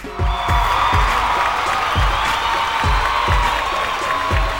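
A crowd applauds and cheers steadily, a dense, sustained wash of clapping and whoops that holds at an even level, with a regular low thumping beat pulsing underneath.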